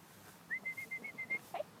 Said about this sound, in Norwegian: Hører plystring. Ja, det er plystring.